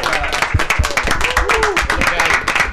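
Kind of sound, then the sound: crowd, audience applause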